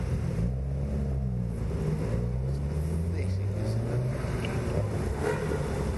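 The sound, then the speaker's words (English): A rally car, thought to be an Evo 9 RS, roars loudly and steadily, its deep growl rising and shifting in pitch as it revs hard and sweeps past. “That's an Evo 9 RS, I think.”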